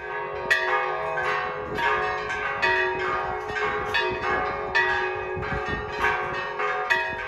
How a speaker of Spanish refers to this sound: Este 20 de junio a las 15 horas se invitó al repique de campanas por un minuto en todos los templos y capillas de la Iglesia Católica en el país.